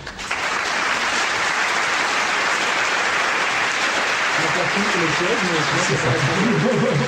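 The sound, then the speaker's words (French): A sustained applause sound effect from a crowd, a dense, steady wash of clapping that starts abruptly and holds at an even loudness for about seven seconds, with voices rising beneath it toward the end. “Non, je vais applaudir pour la ah, fin.”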